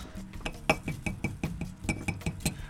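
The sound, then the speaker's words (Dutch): Repeated light clinks of a spoon against glass, a quick irregular series of about a dozen bright, moderately loud taps, as ordinary tea is made in a glass. “En nu maak je in een glas even gewoon thee.”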